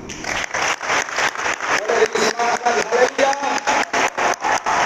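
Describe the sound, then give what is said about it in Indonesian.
A crowd in a church breaks into loud, sustained applause, the clapping swelling in a steady pulsing rhythm for about five seconds, with a few voices calling out faintly beneath it. “Kalau mau tepuk tangan itu.”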